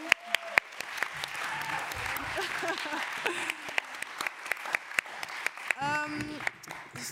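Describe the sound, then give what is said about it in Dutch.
An audience bursts into steady applause, dense clapping filling the whole stretch with sharp individual claps popping out, while some voices and cheers mingle underneath. “En een applaus voor jullie, alsjeblieft.”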